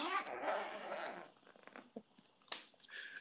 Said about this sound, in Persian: برادر من نه من داشتم زیپ کیس لپتاپ میبستم